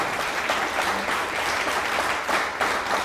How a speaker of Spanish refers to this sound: Muy felices de estar nuevamente con ustedes. Fuerte aplauso a todas las naciones.